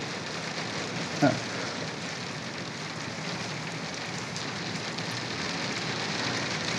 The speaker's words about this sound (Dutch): Wow, wij zitten in de echt hele dikke hagel.